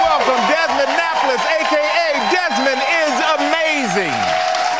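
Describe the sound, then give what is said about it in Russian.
Steady, dense clapping from a talk show studio audience greeting 11-year-old drag performer Desmond Napoles forms a continuous crackling wash, while a voice talks over the top of it the whole time. “На каждом ток-шоу с его участием на телевидении «Аншлаг» аудитория встречает Дезмонта бурными аплодисментами.”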